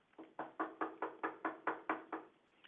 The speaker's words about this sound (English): Now Peter continued knocking. Did vision this? picture it, just picture it. Peter just continued knocking,